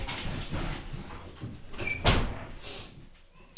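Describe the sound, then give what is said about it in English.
A door slides open to let a pet out, with a brief rumbling scrape and a sharp thud near the middle, followed by a quieter settling sound; no one speaks. “You're gonna let her out? No, you keep talking. You keep talking. Okay, I'm just closer to the door, so I thought.”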